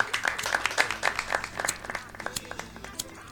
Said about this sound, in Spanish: Este es el clásico sonido cuando suena algún bolero de una banda de rock de prender un encendedor comúnmente utilizado para prender cigarrillos en la vía pública. Me rompe los huevos, que no ande. Ah, que no ande. No anda.